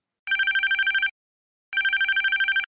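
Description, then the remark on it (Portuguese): An office telephone rings twice, each burst a rapid trilling warble lasting under a second, separated by a short silence. The ringing is clear, with no voices. “A gente sabe que qualquer diferença na folha de pagamento, ou seja, que mexe no bolso das pessoas, já começa a tocar o telefone do escritório.”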